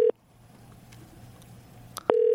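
telephone call ringing

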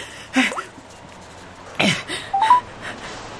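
telephone keypad dialing tones

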